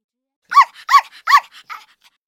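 A dog barks three times in a quick, even rhythm, loud, as a person goes out, followed by a couple of softer trailing yips. No one speaks.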